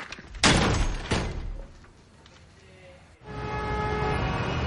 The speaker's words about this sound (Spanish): Lo echa de la casa y cierra la puerta.